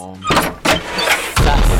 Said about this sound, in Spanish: Portazo, voy yo